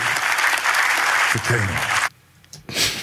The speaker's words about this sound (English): And he has finally made it to Canaan. Let's clap for Jacob that after all he went through, he finally made